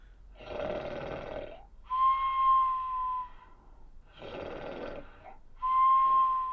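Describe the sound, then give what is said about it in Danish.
A voice imitates a boy's loud snoring: two cycles of a rough, rumbling inhale followed by a whistling, nasal exhale, each long, with a brief pause between. “Hvordan var det, drengens snorken lød?”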